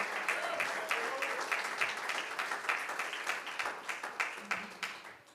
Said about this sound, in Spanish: ¿Puede brindarle ese aplauso a Él en esta hora?